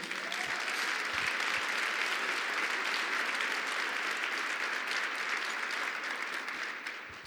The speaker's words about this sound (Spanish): Denle un aplauso a esas personas, por favor.